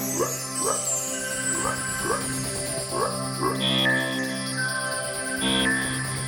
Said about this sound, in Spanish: Cuando las luces se apagan, se encienden los grillos. El sapo le dice a la rana que afine la voz. y es hora del canto.